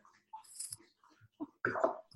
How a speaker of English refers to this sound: oop there's my dog drinking some water you can hear him